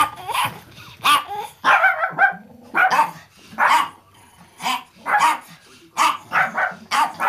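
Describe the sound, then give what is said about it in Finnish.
Several dogs, including one called Nebu, bark in repeated loud bursts with some yips and whimpers mixed in, and a person speaks briefly between the barks. They are at a home for 13 old dogs, a few from Finland and most from Spain. “Tämä on vähän tämmöinen koirien vanhainkoti. Et meillä on täällä 13 vanhaa koiraa, mitkä on tullut vähän ympäriinsä, mistä kukakin on muutama Suomesta ja osa on, suurin osa on Espanjasta.”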